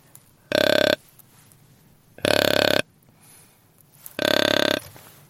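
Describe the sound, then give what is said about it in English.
Three loud, deep grunts from a deer grunt call with its button fully released, each lasting about half a second and spaced evenly apart, with no talking, imitating a bigger buck. “If I let it go altogether, it's a bigger deer.”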